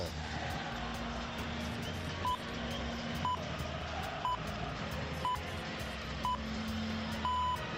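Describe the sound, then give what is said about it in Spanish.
Radio hourly time-signal pips aired alongside the Euroliga basketball theme: five short high beeps exactly one second apart, then a longer final tone, sounding clearly over a dense, noisy background. “tú no digas nada, que eran las horarias.”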